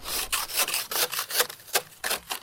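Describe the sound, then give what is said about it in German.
Brisk, repeated scraping of ice off a car windshield, about eight harsh rasping strokes in a quick back-and-forth rhythm, fairly loud, with no talking. “Eiskratzen ist in diesen Tagen wieder angesagt, aber Eiskratzen ist nicht gleich Eiskratzen.”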